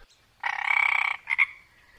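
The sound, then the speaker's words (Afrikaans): A frog croaks in a loud, rapid pulsing trill lasting under a second, followed by two short chirping calls, with no other sounds or voices. “En die klein padda begin sing uit volle bors.”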